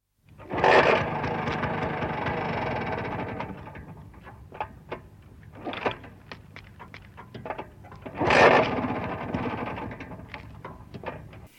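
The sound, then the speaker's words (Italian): A Vespa 150 Super scooter engine, carrying three riders, revs in two loud bursts, the first sustained for a couple of seconds, with a quieter idle and scattered mechanical clicks and knocks between them. “in tre su una Vespa 150 Super.”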